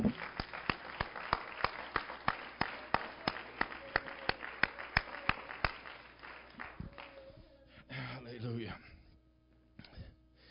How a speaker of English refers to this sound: I'll give him another hand clap.